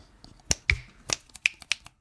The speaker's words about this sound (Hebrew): עושה קליק עם האצבעות בעוד 3, 2, 1.